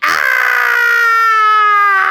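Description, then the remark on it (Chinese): A voice imitates a Tyrannosaurus rex's pained cry as it is bitten by another dinosaur: one sustained, strained wail about two seconds long, loud and tonal with rich harmonics, pitch sliding slowly downward before breaking off. “啊！霸王龙发出痛苦的声音。”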